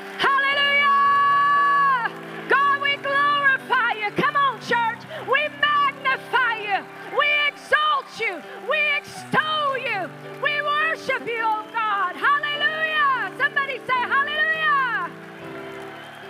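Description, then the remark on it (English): A church audience cheers and whoops loudly in a hand clap for the King of Kings and the Lord of Lords, scattered claps cutting through, while sustained organ-like chords hold underneath for about fifteen seconds before the noise settles. “And I want us as a church family to give the King of Kings and the Lord of Lords the greatest hand clap of the day.”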